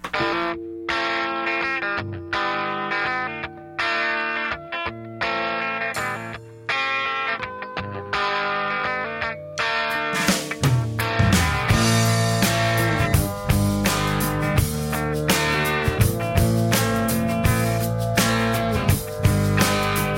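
A classic rock song plays with no talking: a choppy, distorted electric guitar riff opens, then bass and steady drums join halfway through for a full, loud band groove.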